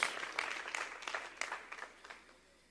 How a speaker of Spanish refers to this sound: Y le podemos dar un aplauso a Jehová por eso. Claro que sí. Gloria a Dios.